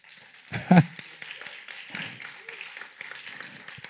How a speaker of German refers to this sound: Das war für mich nochmal Applaus für Jesus. Applaus für Jesus.